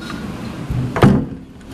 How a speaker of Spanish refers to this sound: ahí lo cerré la puerta y quiero que ustedes entonces escuchen, ahí pueden escuchar el viento y pueden eh, sentir cómo la puerta se mueve